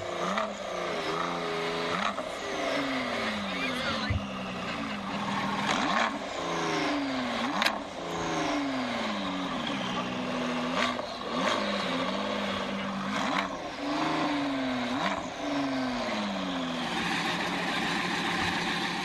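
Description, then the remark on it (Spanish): A Ford GT sports car engine revs hard and continuously during a test drive at the Autódromo Hermanos Rodríguez, its loud roar repeatedly climbing in pitch, then dropping with each gear change, in a steady rhythm of rising sweeps with no talking. “el día de hoy en el Autódromo Hermanos Rodríguez con la prueba de manejo de este Ford GT.”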